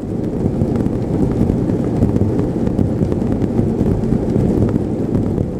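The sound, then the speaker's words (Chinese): A dense, continuous rumbling patter from a sound sculpture by Zimoun, in which 210 motors make cotton balls on strings tap against 40-cubic-centimetre cardboard boxes covering an exhibition wall, forming a steady low roar with faint irregular clicks throughout and no pauses. “奇蒙用了两百一十组马达、棉球，还有纸箱。”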